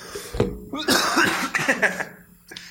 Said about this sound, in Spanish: Está bien recio esa madre. Round de tosidas. ¿Quieres hacer una pausa para toser bien?